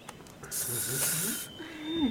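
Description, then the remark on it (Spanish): A person imitating a snake makes a long, airy, loud hissing sound lasting about a second, followed by a brief voiced murmur. “Bueno, estoy con una serpiente. Hola, señora serpiente.”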